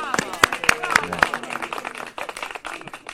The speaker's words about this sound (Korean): 아 박수가 나오는 거였군요. 저보고 박수를 치라는 건 줄 알았는데 네 박수가 또 많이 네.